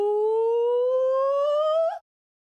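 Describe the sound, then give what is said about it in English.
A person imitates a gibbon call with one long, loud voiced whoop that glides slowly upward in pitch for about two seconds, then cuts off abruptly, somewhat like a siren. “Give me your best Gibbon impression.”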